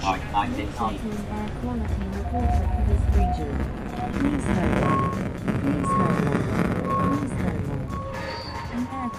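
Lisbon air pollution readings, collected by a bicycle ridden through the city streets, turned into sound: short electronic tones at shifting mid pitches, sounding in an irregular sequence over a steady rumble of street traffic.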